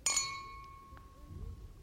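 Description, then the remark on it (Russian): Two champagne glasses clink together once in a New Year's Eve toast inside a lift stuck between floors, with a bright ring that hangs and slowly fades, while soft low murmuring stirs underneath. “Вы позволите, я налью вам еще шампанского. С наступающим! За ваше здоровье, за ваши успехи.”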